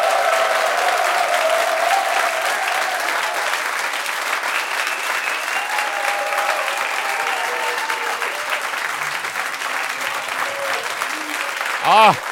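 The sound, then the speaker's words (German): A large live audience of many thousands of people applauds and cheers, a dense, steady roar of clapping and voices that stays loud and continuous for about twelve seconds without fading. “für dich absolute Premiere mit echten Menschen und zwar viele tausend Menschen hier vor uns, wenn die einmal ein Zeichen geben würden.”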